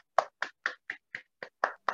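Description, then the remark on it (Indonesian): Hands clap eight times in applause in a quick, steady rhythm, each clap crisp, with silence between them and no voices. “Mari kita beri tepuk tangan, aplaus untuk keempat video tadi, guys.”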